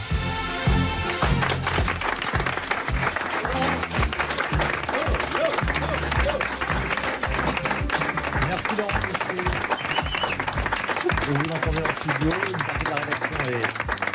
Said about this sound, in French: dans le studio pour applaudir, pour vous applaudir,